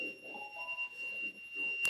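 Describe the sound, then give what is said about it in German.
A thin, piercing alarm siren, set off when something is opened, holds a steady high-pitched tone for the whole stretch, fairly quiet, over soft muffled rumbling and a brief knock near the end. “Also wenn es jetzt aufmacht, sollte dann die Sirene losgehen.”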